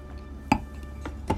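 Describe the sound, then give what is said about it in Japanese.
Wine glasses holding Chilean Alpaca red wine clink together in a toast, two bright ringing taps about a second apart with a softer knock between them, against a quiet background with no talking. “はいでははいじゃあ乾杯”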